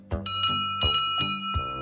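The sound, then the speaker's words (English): The bell of Toby, a short, boxy steam tram engine on Sodor with cowcatchers and wooden side plates, rings in quick repeated strikes, about five clangs with ringing overtones, clear with no voices present. “He runs on steam, but he doesn't look like a steam engine at all.”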